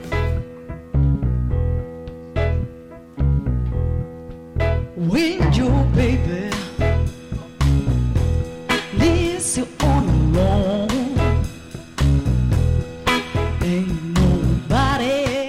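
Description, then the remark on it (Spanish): A song plays on the radio, loudly and continuously, with a steady pulsing beat and heavy bass; after a short instrumental opening, a melodic lead line, likely a singing voice, comes in over the band. “Vamos a hablar un poquito de música. Esto suena así.”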